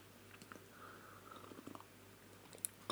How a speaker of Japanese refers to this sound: はいコーヒーを飲みますね